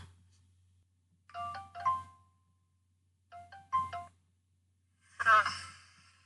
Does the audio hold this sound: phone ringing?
yes